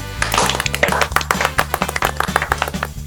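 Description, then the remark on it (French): A single person applauds himself, clapping in a quick, slightly uneven run of sharp slaps lasting a few seconds, heard over a steady music bed with no talking. “Je me suis applaudi.”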